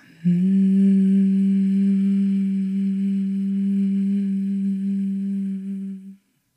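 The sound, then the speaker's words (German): A single long, steady humming exhale on a low, unwavering pitch, made after a deep inhale as part of a breathing exercise, held evenly for about six seconds before stopping abruptly. No talking accompanies it. “Das heißt, du atmest tief ein und summend aus.”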